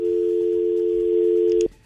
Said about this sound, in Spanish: Déjeme contestar este teléfono.